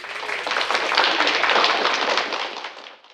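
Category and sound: sound effect, canned applause sound effect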